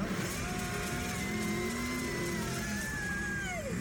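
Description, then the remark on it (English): A car engine revs hard and accelerates as the car is about to be crashed into a plane, its pitch climbing in long rising sweeps over a steady, loud roar throughout, continuous with no voices. “You're gonna crash the car into the plane like Liam Neeson in Taken 3?”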